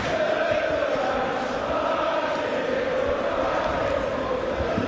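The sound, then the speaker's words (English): A football stadium crowd cheers in a loud, unbroken roar, with sustained sung or chanted tones riding over the dense wash of voices for the whole few seconds. “Well, this is a crowd.”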